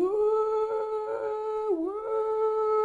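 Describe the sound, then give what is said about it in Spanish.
An air raid siren in Kyiv, Ukraine, warning of bombing, wails in a steady, loud tone, briefly dipping in pitch before holding again, with no voices present. “Ya ven que cuando van a caer bombas, eh, las ciudades normalmente tienen estas sirenas que se prenden.”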